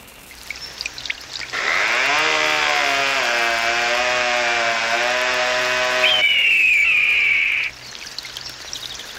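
A lumberjack's chainsaw roars steadily for about six seconds as it saws a tree in the Amazon forests, its buzzing motor pitch dipping slightly, then rising into a sharper, high whine as it bites through wood before cutting off abruptly. No one speaks.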